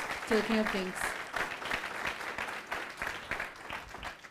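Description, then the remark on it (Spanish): An audience applauds the King of Kings (God) with dense, steady clapping that continues for several seconds, while a voice briefly calls out over it near the start. “Ahora sí, dale ese fuerte aplauso al Rey de Reyes.”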